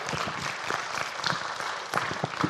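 A room full of people claps steadily for a speaker coming up, a dense crackle of many hands with no voices rising above it, sustained evenly for a couple of seconds at moderate volume.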